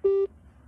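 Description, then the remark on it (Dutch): A single short telephone busy-tone beep after a phone call is hung up, a steady mid-pitched buzzy tone lasting about a fifth of a second, followed by faint low background hum. “besluit hij gewoon ijskoud op te hangen.”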